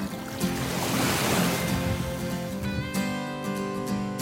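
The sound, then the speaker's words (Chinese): Ocean waves: a broad, hissing surge of surf swells and washes over a few seconds, with steady sustained tones running underneath and no one speaking. “我喜欢听海的声音。”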